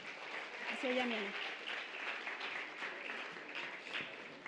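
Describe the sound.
A crowd applauds steadily, a dense wash of clapping that holds at an even level throughout, with a brief voice or cheer rising over it near the start.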